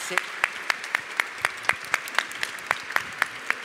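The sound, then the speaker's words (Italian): Steady, evenly paced clapping, sharp claps at a brisk regular rhythm over a continuous background wash, keeping up the same moderate loudness throughout with no voices clearly standing out; applause at the close of a public conversation. “Tanto un applauso.”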